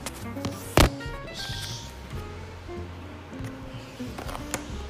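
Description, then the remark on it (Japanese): A kitchen ventilation fan, switched on after the stove is lit to heat oil in a frying pan for frying, runs with a steady, even whooshing hum throughout, joined by one sharp tap early on and a few faint clinks of cookware. “火をつけて換気扇を回して換気扇うるさいかな”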